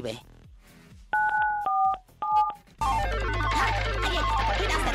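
Three or four telephone keypad dialing tones beep in quick succession as 94.7 is dialed, each a steady two-pitched electronic tone, before a loud, dense wash of music and noise takes over.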